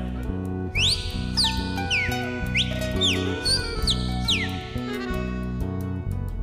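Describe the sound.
Bright, slurred whistles imitate a cardinal's song, repeating in quick rising and falling sweeps over steady instrumental music with a strong bass line.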